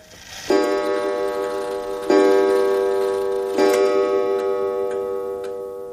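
grandfather clock ticking

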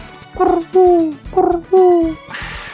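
pigeon cooing

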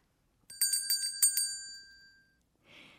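correct-answer ding-dong chime

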